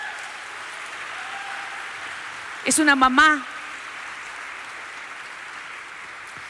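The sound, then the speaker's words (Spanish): A church audience claps steadily for several seconds to honour a woman, a dense and even wash of applause from start to finish. A voice briefly speaks over it partway through. “La honramos por eso. Dele un aplauso.”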